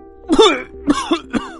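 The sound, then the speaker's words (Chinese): A run of four throaty, voiced coughs from the elephant shop owner with a slight cold in a children's story: a longer, heavier one first, then three shorter hacks in quick succession. Moderately loud, with no talking. “拉布拉多警长走近一看，大象老板的长鼻子上挂着长长的鼻涕，一咳嗽就甩的到处都是。”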